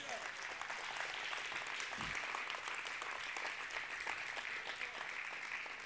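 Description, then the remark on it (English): A church audience claps steadily for several seconds as a hand clap of praise to the Lord, a dense, even wash of many hands with no single beat standing out, the applause holding at a constant level throughout. “Everyone give the Lord a hand clap of praise.”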